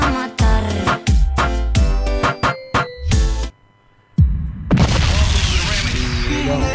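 A rapid volley of loud cannon-like booms fires over about three seconds, then a short lull before a dense, sustained roaring rumble swells up and holds. No one speaks.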